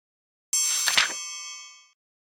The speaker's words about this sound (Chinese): 洞穴的岩壁又厚又硬，小黑皮拿着铲子敲击的声音回荡在洞口。